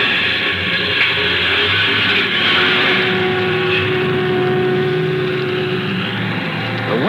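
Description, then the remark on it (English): A bus engine drones steadily at a loud, constant level, its low rumble and harmonic whine holding even as the bus pulls away and swings out onto the highway in the mountains, with no voices present. “Well, here we go, folks.”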